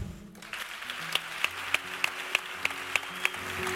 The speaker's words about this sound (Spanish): Eh, y me gustaría que le dierais un fuerte aplauso. Aquí a la percusión,